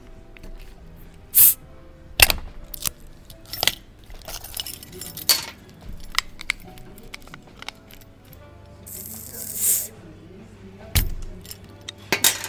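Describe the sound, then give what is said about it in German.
A bottle of an unfiltered drink is pried open with a pink bottle opener in a shady backyard on a hot summer day: metallic clicks and glassy clinks scattered over several seconds, then a short fizzy hiss as the cap releases, followed by a few more sharp clinks. “Und der pinke Erection-Öffner passt perfekt dazu.”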